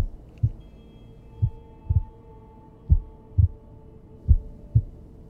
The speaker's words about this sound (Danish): Det er som om, at tiden står stille, og det eneste, han hører, er hans egen hjertebanken og en rungen for ørerne.